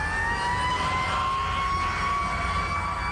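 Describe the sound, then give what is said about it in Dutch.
A military helicopter flies overhead over the Pentagon, its engine a steady, fairly loud roar with a high whining tone running through it, holding constant for the whole stretch with no voices. “Een militaire helikopter scheert over het Pentagon.”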